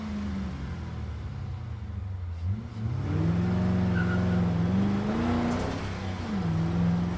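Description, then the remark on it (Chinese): A car engine hums steadily, then revs up at about two and a half seconds as the driver steps on the accelerator, its droning pitch climbing and holding high as the car accelerates. It stays loud throughout, with no voices. “史黛拉体内的肾上腺素狂飙，她赶紧踩着油门。”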